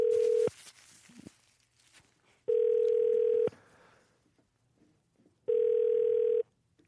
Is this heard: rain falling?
no